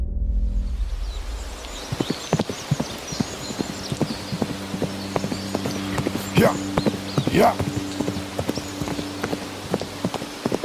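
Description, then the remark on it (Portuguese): A ridden horse gallops steadily through pine trees, jumping over logs, hooves clip-clopping in a fast, driving rhythm, with a brief whinny partway through and a soft rain-like hiss underneath. “Jack batia as rédeas de seu cavalo com total desespero.”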